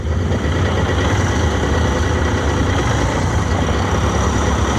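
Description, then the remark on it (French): A quad bike's small engine idles steadily, a constant low rumble with a rough, buzzing texture that holds unchanged throughout, with no voices. “Le principal, ne pas avoir l'air ridicule en fait, c'est une grosse tondeuse à gazon, ni plus ni moins.”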